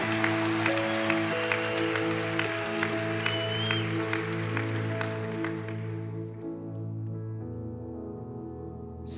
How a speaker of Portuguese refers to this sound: Aplauda o Senhor, que nesse aplauso vai vir seu pai, vai vir sua mãe, vai vir seu vizinho, vai vir sua família.